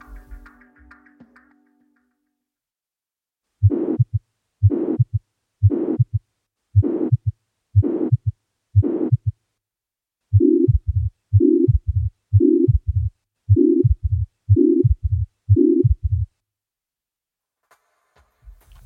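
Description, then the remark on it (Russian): A steady heartbeat with a continuous, band-like blowing pansystolic murmur of mitral regurgitation filling each beat, about a dozen regular cycles heard clearly and alone, the murmur sounding harsher in the first half and softer later. “Лентовидный пансисторический шум более характерен для митральной регургитации вследствие ревматического поражения клапанов.”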